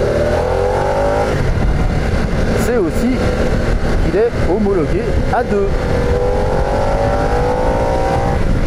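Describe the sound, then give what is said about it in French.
A liquid-cooled 60-degree V-twin engine, the 975 with four valves per cylinder and 90 horsepower at 7000 rpm, revs loudly, its pitch climbing in steady sweeps, easing briefly while a man talks over it, then rising again toward the end. “Alors ce moteur 975, euh, il repose sur la même base que le 1250, hein, c'est un peu le même principe, il est ouvert à 60 degrés, refroidissement liquide, 4 soupapes par cylindre.”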